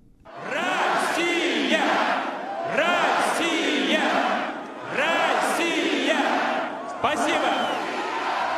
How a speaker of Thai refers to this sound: เสียงเชียร์แสดงความยินดีดังกระหึ่มไปทั่วจัตุรัสแดงในกรุงมอสโก เมื่อวลาดิเมียร์ปูตินประธานาธิบดีรัสเซียปรากฏตัวบนเวที หลังจากคว้าชัยชนะอย่างถล่มทลายในการเลือกตั้งด้วยคะแนนร้อยละ76.6